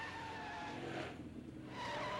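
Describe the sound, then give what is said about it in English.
Tires squeal loudly and continuously as a car skids through a chase tearing around San Francisco, the shrill screech easing briefly midway before surging back, with engine noise underneath and no talking. “they always had to fill in you know have some good car chase or something and you know really isn't necessary”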